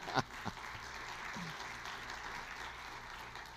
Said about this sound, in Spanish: Entonces damos un aplauso a Dios.